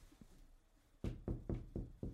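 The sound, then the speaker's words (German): Five evenly spaced knocks on a hard surface, imitating footsteps, fairly loud, paced like slow footsteps after a quiet start with a faint tap. “Wieso klopfst du? so Schritte? Schritte, okay.”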